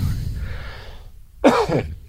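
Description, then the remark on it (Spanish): A single fairly loud cough with a rough throat-clearing quality bursts out from a person who has had a cough for some time, after a moment of low background rumble, then stops abruptly. “y estoy con tos, y estoy con tos desde hace tiempo y no tenemos agua.”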